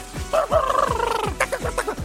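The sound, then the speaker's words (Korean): A DJ's voice mimics a chicken with a quick, rhythmic run of clucking calls, about a dozen sharp bursts over two seconds, fairly loud with no talking. “닭디제이 카카카카 하셨습니다.”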